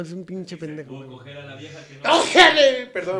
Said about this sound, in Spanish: Salud. Se estornudé. Sí, sí, eh, hombre, hombre. ¿Viste el estornudo de señor?